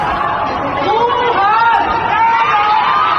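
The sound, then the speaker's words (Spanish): Many voices shout and call out at once from one building to another, quarantined people in the city where the coronavirus began calling for help and encouraging each other, overlapping into a loud, steady babble of raised, sing-song cries that rise and fall without any pause, with no clear words. “Son gente, eh, dicen, dándose aliento, gente pidiendo ayuda en los edificios en Guam, esta ciudad que es donde inició todo lo del coronavirus. Y entonces empiezan a gritarse.”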